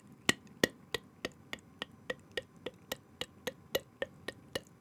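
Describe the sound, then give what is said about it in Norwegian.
A mouth imitates the steady putt-putt of an old wooden snekke motorboat engine: about sixteen crisp, evenly spaced pops at a brisk, even pace, moderately loud, with no talking. “Snekker og jeg husker fryktelig godt den første påhengsmotoren som bare skrek.”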